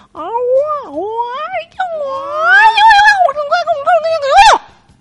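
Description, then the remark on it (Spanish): A human voice imitates cats caterwauling in a patio at night: loud, drawn-out yowls that rise and fall in pitch, wavering almost continuously for about five seconds before one final rising wail cuts off. “a mí no me gustan los gatos, me dan alergia y solo van a huear a mi patio en las noches, sin dejarme dormir, hablando así.”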